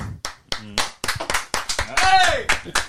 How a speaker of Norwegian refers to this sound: Og nå klapper til og med Erik Mykland. Det er helt nydelig.